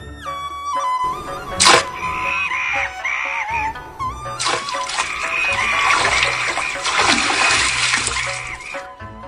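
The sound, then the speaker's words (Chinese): A sharp splash as a monkey tangled in a fishing net is pulled into a river, followed by a long, loud churning rush of water. Steady tonal music or a wailing tone runs underneath throughout. “并被拖下了水。”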